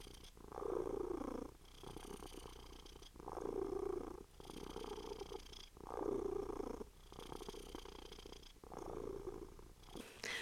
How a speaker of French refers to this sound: j'enregistre cet épisode de podcast avec mon chat Cookie Cru euh, à côté de moi qui ronronne de ouf